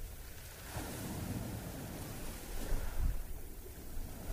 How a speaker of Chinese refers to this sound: 你听着海浪打了上来，又缓缓的退下去。